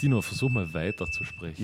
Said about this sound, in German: Wusstet ihr, dass Rauchmelder extrem empfindlich sind? Ach, das war der Rauchmelder.